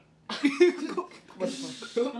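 A brief vocal sound is followed by a single muffled, breathy cough, close and moderately loud, as though smothered against cloth or an arm.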